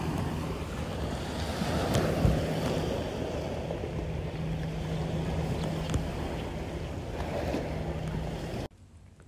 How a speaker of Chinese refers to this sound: 鸟叫声和海浪声好美啊！我是一个喜欢记录声音的人。这个时候，偷偷从包里把手机拿出来，打开了语音备忘录，又悄悄地放回去。